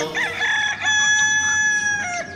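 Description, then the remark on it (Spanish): A rooster crows once in a long, loud, drawn-out call with a rising start and sustained middle, with no talking over it. “¡Gallos!”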